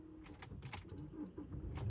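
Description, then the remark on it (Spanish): A car's low engine rumble hums steadily, mixed with scattered light clinks and rattles, and the rumble swells a little toward the end. No one speaks. “Tengo que llevar el coche, es que esto es un rollo.”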